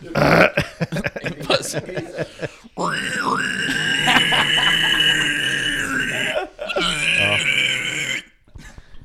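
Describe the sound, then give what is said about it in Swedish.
A voice imitates the low, guttural pig-squeal vocals of an old band in a sustained, gritty growl lasting several seconds, loud, broken by a short pause, with brief laughter and chatter at the start. “Och då var det bara alltså, pig squeals och liksom där, alltså lågt jävla...”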